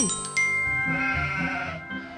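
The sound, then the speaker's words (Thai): A sheep bleats several times in quick succession, each call wavering and nasal, clear, with faint steady musical tones sustained in the background. “มีแกะตัวหนึ่งค่อนข้างที่จะฉลาด เพราะรู้ตัวว่าเป็นสัตว์ที่ไม่มีอำนาจ”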